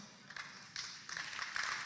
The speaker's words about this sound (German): Ihr müsst jetzt nicht jedes Mal klatschen das nimmt alles mir meine Zeit weg, die ich habe.